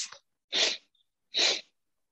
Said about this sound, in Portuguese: Peraí que eu estou contendo as lágrimas. Tá fungando aí, lágrimas de nariz.